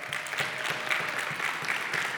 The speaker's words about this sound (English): So could you give our tech team a round of applause? They do an amazing job.